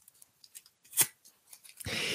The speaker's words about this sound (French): C'est de c'est de déchirer le bout de papier dans lequel vous avez écrit l'ancienne conviction, de le froisser et de le déchirer, de le déchirer en quatre morceaux.